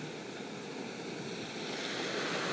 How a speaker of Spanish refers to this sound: El día de hoy les hablo desde la playa. Espero que las puedan escuchar las olas, son maravillosas. Su sonido es maravilloso.